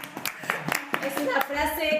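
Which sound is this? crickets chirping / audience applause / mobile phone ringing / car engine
audience applause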